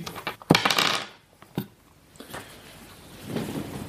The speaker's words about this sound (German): Ja Ja, würfel auch nochmal mit dem W100. Ne?